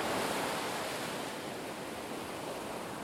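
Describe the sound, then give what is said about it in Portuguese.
A steady, full roar of sea surf in Italy washes continuously, like waves rolling onto a shore, with no distinct individual crashes and no voices. “Ele teve, então, o seu primeiro contato com o uma... mar.”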